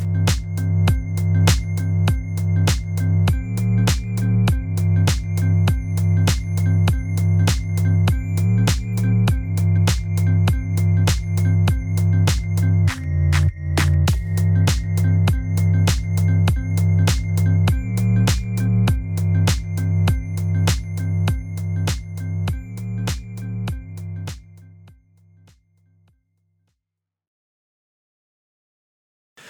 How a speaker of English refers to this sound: Yeah, mute that fucking phone.